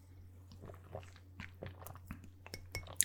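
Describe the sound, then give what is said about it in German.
Someone sips and swallows Saskia brand water, a series of small wet mouth clicks and soft gulps, quiet and irregular over a faint low hum, with no talking. “Sehr gutes Wasser, vielen Dank.”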